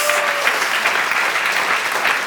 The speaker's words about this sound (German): ich bin sowas von stolz auf unsere Jugend, du auch. Halleluja, ein extra Applaus.